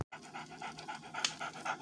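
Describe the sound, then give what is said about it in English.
A dog pants rapidly and steadily, a rhythmic series of breathy huffs repeating about every quarter second with no talking, as its owner tries to get her two dogs to sit down. “Actually, I have two. I'm trying to sit these dogs down so I can think about what I'm going to do tonight.”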